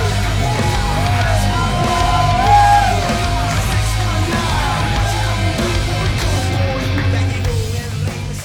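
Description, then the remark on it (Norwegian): A large audience cheers loudly and continuously for several seconds as a guest makes his entrance, with scattered whoops and yells rising above the roar and a steady musical backing underneath. “Det, kan, det er bra at dere jubler nå, i hvert fall.”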